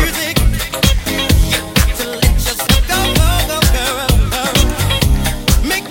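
A loud, upbeat 2003 dance track by an Italian DJ producer project plays with a steady four-on-the-floor kick drum, layered synths and melodic vocal lines filling the mix throughout, with no one talking over it.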